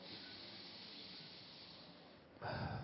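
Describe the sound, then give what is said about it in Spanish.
A long, deep, steady breath drawn in through the nose, airy, lasting a couple of seconds before a louder, rougher rush of air takes over at the end. “Vamos entonces, tomando una respiración profunda”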